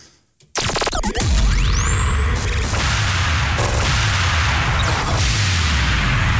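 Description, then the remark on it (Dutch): A loud radio-jingle turbo sweep effect, loaded and played live: a sudden dense whoosh bursts in, and a bright tone shoots upward and holds high over roaring, rumbling noise for several seconds. “Eh, even kijken, ik heb hier wel een turbo sweep.”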